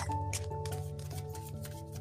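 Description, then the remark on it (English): A deck of tarot cards being shuffled before drawing cards for a reading, with quick crisp papery riffles and slaps repeating in close succession over a steady low hum and faint held tones, no voices. “We um, didn't have any questions for anybody yeah, that yeah so we thought we'd just start draw some cards so we're gonna get started for the collective. cards shuffle, darling.”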